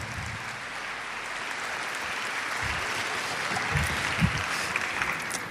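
A crowd claps steadily for several seconds in applause to God, a dense, continuous wash of applause filling the room at an even loudness without any voices rising above it.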